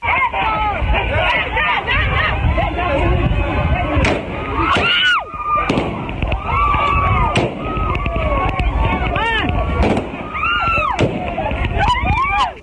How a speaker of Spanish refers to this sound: incluso los civiles comenzaron a lanzar piedras y a golpear a los soldados quienes eh, trataron de repeler la situación realizando disparos al aire y también al piso. Escuchemos parte de lo que ocurrió el día de ayer en esta ciudad fronteriza.